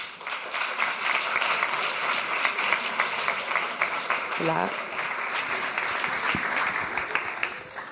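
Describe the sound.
Sustained audience applause, a dense, steady wash of many hands clapping at an even loudness for the full eight seconds, with a brief voice or shout briefly rising out of the crowd midway.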